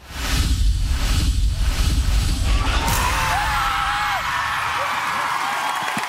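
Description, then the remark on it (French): A large studio audience gives a standing ovation, cheering loudly and continuously, a dense wash of clapping, yelling and whoops, with shrill whistles cutting through in the second half. “On a les quatre buzzers d'immunité un standing ovation.”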